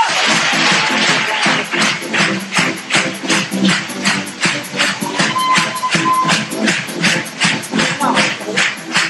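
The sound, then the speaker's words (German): An audience claps steadily for about nine seconds, a dense, loud patter of many hands with small surges in intensity and no voices standing out above it. “Applaus!”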